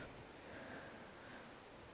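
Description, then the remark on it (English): A steady, even rush of stream water tumbling over jagged rocks below a trail among hemlocks, a continuous hiss with no pauses and no voices. “It's like jagged rocks, water's like rushing over it.”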